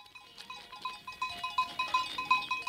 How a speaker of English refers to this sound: A herd of goats, sheep, and cows ambles up a steep mountain road in the tiny country of Lesotho. A shepherd, wrapped head to toe in a wool blanket and hat, rides alongside on a horse, leading the animals towards a stream for their daily drink.